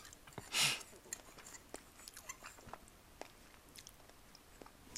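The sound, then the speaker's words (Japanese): Quiet chewing of peperoncino pasta topped with chili oil, eaten as lunch, with a steady run of soft wet clicks and smacks, plus one louder sharp burst near the start. No one speaks. “昼ごはん作って食べながら雑談”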